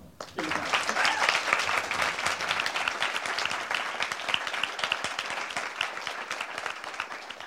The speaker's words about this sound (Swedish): Eh, men jag tycker vi hälsar hjärtligt välkomna med en varm applåd.